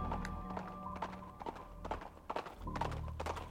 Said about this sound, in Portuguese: Era o barulho de um bicho grande, como se estivesse andando uma vaca no pasto.